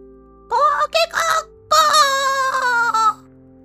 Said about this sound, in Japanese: 一番鳥の鳴き声でおさんばさんははっと目を覚ましました。